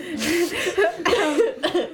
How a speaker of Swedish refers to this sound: host, host. Host, host.